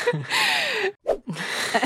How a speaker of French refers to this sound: est encore en train de bailler, j'en reviens pas. Meuf dort, en fait.